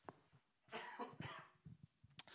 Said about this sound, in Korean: 제가 기침이 떨어지지 않아가지고 집회 가기 전까지 좋았었는데 집회 가서 하도 소리를 지르고 기도 했더니 그냥 목이 다시 상태가 네, 뭐 기침하는 사람들도 많았는데 그 중에 한 명이 저였습니다. 예, 그래서 옆에 있는 사람들이 왜 이렇게 기침하나 이렇게 저를 쳐다볼 정도로.